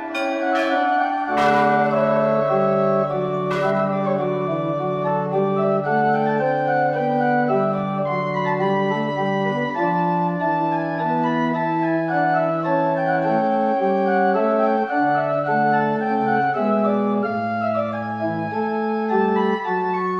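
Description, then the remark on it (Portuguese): Historic church bells of Ouro Preto and Mariana in Minas Gerais, Brazil, ring steadily for about twenty seconds, several bells overlapping in a rich, sustained peal of bright and deep tones, with sharp strikes near the start and no voices. “Sinos, sons sonoros, estridentes, sons de ouro preto e mariana, sons da gente, sons de Minas, Sons das Minas Gerais.”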